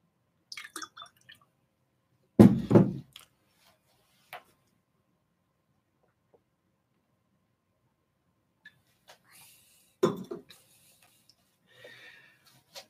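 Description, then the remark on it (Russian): Quiet sounds of water being poured into a glass and drunk: a few soft clinks and splashy bursts separated by long silent pauses, with no talking. “Сейчас побью воды с разрешения.”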